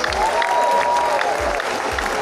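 A church audience applauds for Jesus in a steady, dense wash of clapping that fills the space, with crowd voices and a faint sustained tone mixed underneath.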